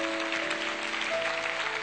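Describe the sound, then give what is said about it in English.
An audience claps their hands in praise to the Lord after a prayer, a dense, steady wash of applause filling the whole moment, with a faint sustained musical tone humming underneath. “Let's give the Lord a hand clap for praise.”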